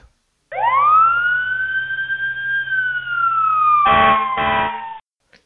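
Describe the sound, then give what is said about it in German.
A loud fire engine siren sweeps up into one long wail that slowly drops in pitch as it passes, with two short, harsh horn blasts near the end. No one speaks. “Tatü, tata, die Feuerwehr braust vorbei.”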